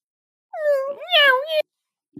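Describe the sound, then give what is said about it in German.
A single drawn-out, high-pitched meow from a small kitten held under a person's armpit, fairly loud, rising and falling over about a second, followed by silence and a faint soft knock. “ich habe so ein kleines Katzenbaby unter den Armen, unter den oh, Achseln.”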